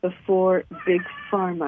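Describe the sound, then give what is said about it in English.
A cat meows loudly, drawn-out wavering cries rising and falling, while a person keeps talking over it. “Um, that's our cat.”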